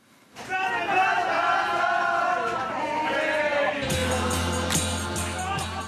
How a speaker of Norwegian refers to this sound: Publikummere i gledesrus på bussen fra konsert med det store idolet sitt